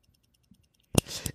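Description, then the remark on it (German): Stopwatch buttons clicking to start, stop and reset to zero: a faint tick, then two sharp, loud mechanical clicks close together near the end, with a brief rattle between them. No one speaks. “Und das Gute ist, weil ich habe mich nämlich gewundert, weil in diesem Sound geht es nämlich Klick, Klick und dann macht er nochmal Klick. Und der, dieser Klick ist der, wo er wieder auf Null stellt.”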